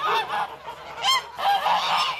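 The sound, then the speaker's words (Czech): Domestic geese at a farm in Bílý Kostel, Liberec region, Czech Republic, honk loudly and repeatedly, their harsh nasal calls overlapping in a noisy, continuous flock chorus with no voices present. “Tady jsou husy letos úplně poprvé.”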